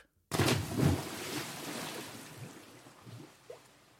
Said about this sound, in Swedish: Vad var det där? Jo, det var ett magplask.